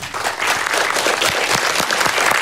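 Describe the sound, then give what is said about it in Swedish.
An audience applauds steadily as a guest author is welcomed, a dense wash of many hands clapping at an even, sustained level with no voices standing out. “Stor applåd!”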